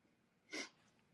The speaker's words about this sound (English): Sorry, I got a little bit of a running nose here. I'm sorry if you can hear the sniffles. I'll blow my nose in a second.